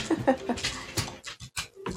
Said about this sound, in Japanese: ちょっと犬が暴れ始めましたね。